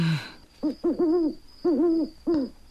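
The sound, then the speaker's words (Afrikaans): An owl hoots in a quick irregular series of about five short, tonal calls, clear, with no talking over them. “Die uil is terug.”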